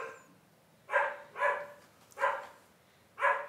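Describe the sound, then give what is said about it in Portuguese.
Dogs barking, four short sharp barks at an uneven pace, moderately loud, with no talking and only faint background noise between them. “Os cachorros hoje estão com a gente aqui, hein? Participação canina no nosso podcast.”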